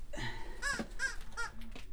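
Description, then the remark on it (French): A crow that has made its nest where it has stayed for months caws harshly about four times in an uneven rhythm, fairly loud, with no one speaking over it. “Le corbeau, on l'a laissé là depuis des mois, mais il est bien là, il a fait son nid, il va rester là.”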